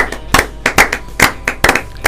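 Brief applause: a quick run of sharp, loud handclaps in a slightly uneven rhythm, about nine or ten distinct claps over two seconds, with no talking.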